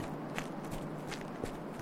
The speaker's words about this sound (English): I just listen to my, my little slow footsteps. It kind of lulls me in my mind.